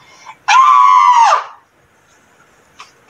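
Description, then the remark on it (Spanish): A person imitates a crow with one long, loud, strained caw lasting about a second, its pitch sagging at the end, followed by near silence and a couple of faint clicks. “El cuervo no podía más, así que, instintivamente como un auténtico ruiseñor, comenzó a graznar lo más fuerte que pudo.”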